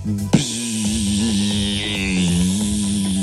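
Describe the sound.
Someone mimics a big fly with their voice, holding a low, raspy buzz for about three seconds after a brief click, its pitch wobbling slightly up and down.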